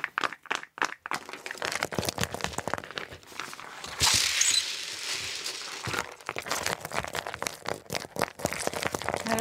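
A dense, crackly patter of small rattling and crinkling noises, a handmade foley imitation of rain made with an uchiwa fan, runs steady for several seconds with irregular bursts and a brief louder swell partway through.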